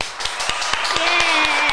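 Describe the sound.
Steady rhythmic clapping, about four sharp claps per second at an even pace, with a sustained voice-like cheer or tone running underneath.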